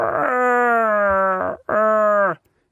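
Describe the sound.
A person imitates a furry alien creature's growl: two long, loud, moaning wails, the first about a second and a half, the second shorter, with a falling, throaty pitch and no speech.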